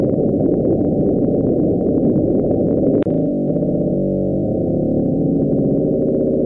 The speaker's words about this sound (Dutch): Oh, maar ze denken te weten wat het is. Ze denken namelijk dat het een stuk van een vorstbeving is in grote ijsbergen op Antarctica.